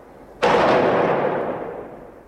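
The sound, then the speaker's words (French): A single sharp, loud gunshot cracks out after a brief quiet moment, followed by a long echoing decay that slowly fades, with no voices. It is part of a roughly 30-second exchange of gunfire between police and armed men inside an apartment building in Bosnia. “Les échanges de coups de feu vont durer environ 30 secondes.”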